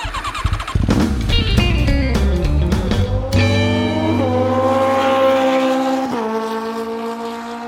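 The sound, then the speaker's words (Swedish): A motorcycle engine revs loudly, its pitch climbing in a few sharp surges and then holding a steady roar with stepped shifts. No one speaks. “när vi ändå pratar motorcyklar så måste jag nog ändå säga att jag är en människa som har levt hela livet under drömmen om en motorcykel”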